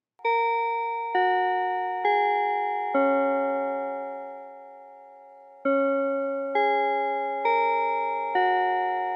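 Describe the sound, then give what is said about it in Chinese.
A bell chime signalling the start of a segment plays two four-note melodic phrases, each clear ringing tone struck in steady rhythm, with the last note of the first phrase left to fade before the second begins. No one speaks. “所以大家钟声过，开始进入今天的科技早自习喽。”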